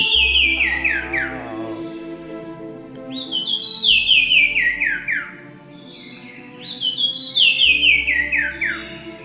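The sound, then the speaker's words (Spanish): A Sumichrast's wren sings three loud, clear phrases, each a cascade of bright whistled notes tumbling downward in pitch, spaced a few seconds apart over a low steady background hum. “ese pajarito se llama Cuevero de Sumicrast”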